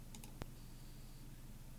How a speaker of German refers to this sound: Da gibt es einen Vorhörbutton bei jedem Effekt. Ich klicke da mal.